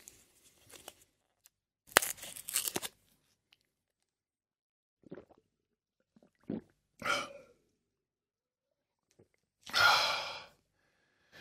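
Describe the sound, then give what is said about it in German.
A headache tablet is pushed out of its blister pack with a brief crinkly foil crackle, followed by scattered soft clicks and a loud breathy exhale as it is taken. No speech. “Das, was ihr da jetzt möglicherweise gehört habt, wenn es nicht zu subtil war, war das Herausdrücken und Einnehmen einer Kopfschmerztablette.”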